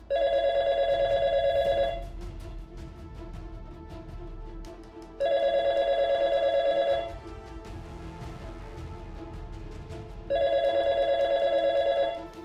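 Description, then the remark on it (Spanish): A telephone rings three times, each ring a loud, steady electronic trill lasting about two seconds, separated by pauses filled with low background noise. No one speaks. “Sonó el timbre hasta en tres ocasiones.”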